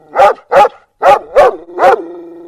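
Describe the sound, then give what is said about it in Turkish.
A dog barks five times in quick, uneven bursts, loud and sharp, the last bark trailing into a brief whine. “Hususi beşirilmiş biftek yiyor Küpek Bey.”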